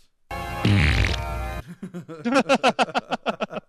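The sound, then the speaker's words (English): A loud, buzzing fart noise blown with the mouth, lasting just over a second, followed by a burst of rhythmic, pulsing laughter. “I'm, uh, I'm going to give it a lot of farts because I'm going to do this.”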